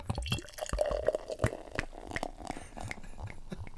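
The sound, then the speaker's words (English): Belgian beer pours into a glass, splashing and glugging steadily, with a faint rising ring as the glass fills over a few seconds; no one speaks. “a nice, uh, a nice pour there, and I'm going to overflow.”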